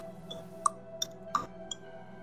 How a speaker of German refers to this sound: Während du im Planwagen kauerst, hörst du jetzt, was du vorhin nicht gehört hast, ein leises Ticken.